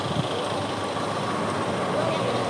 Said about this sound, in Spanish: ¿Qué ando por mi barrio, calle Sanz? Viene el autobús, pensaba que no me da tiempo y me daba tiempo si hubiera querido correr. Y he venido tan lento que me he dado cuenta que el autobús es más lento.